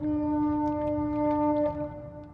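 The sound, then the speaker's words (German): Another ship's compressed-air foghorn sounds one long, steady droning blast from some distance, rich in harmonics over a low background rumble, fading slightly near the end with no voices present. “Das andere Schiff da hinten, so muss das klingen, ne? Ordentlich mit Druckluft.”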